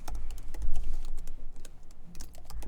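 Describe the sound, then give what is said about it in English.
Rapid, dense typing on a computer keyboard with a continuous stream of sharp clicks, fairly loud, with no talking over it. “Why are we typing so furiously?”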